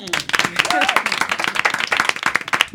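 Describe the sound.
An audience breaks into applause, a dense, steady patter of many hands clapping with sharp irregular peaks, while voices and a few shouts rise over the clapping.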